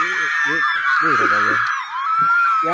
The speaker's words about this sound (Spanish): Locos, están locas que tú hagas algo, ¿verdad? Entonces, que uno de esos gritos fui yo.